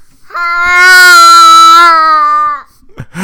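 A toddler lets out one long, loud scream held at a steady, high, strained pitch for about two seconds, then breaks off into a short breathy noise.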